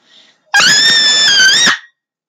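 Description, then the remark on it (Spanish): A single loud, high-pitched scream at the edge between a forest and a campsite, held steady for about a second with a slight rise at the end, piercing, preceded by a faint brief sound. “exclamó un fuerte y agudo grito al observar a la niña que habían visto por la madrugada, marcando los árboles del bosque.”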